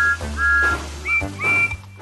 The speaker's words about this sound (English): the guard blew his whistle to let Thomas know it was safe to leave